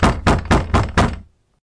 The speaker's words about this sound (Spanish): Golpearon la puerta.